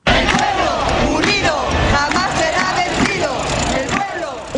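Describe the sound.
A large crowd of protesters at a peaceful march in Barcelona, Spain, chants loudly in unison, voices rising and falling in rhythmic shouted slogans, with traffic rumbling faintly beneath the continuous, dense outdoor roar.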